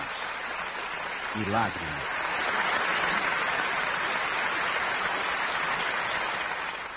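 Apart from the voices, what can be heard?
long applause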